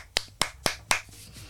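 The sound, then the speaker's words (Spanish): A single person claps four times live as applause sent to a guest, in a quick, even rhythm, each clap sharp and crisp, followed by a short quiet stretch with no voices. “Y un aplauso que te mando. Mira, aquí en directo.”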